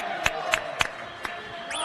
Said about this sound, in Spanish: Un aplauso a don Fernando, nuestro gran. gracias!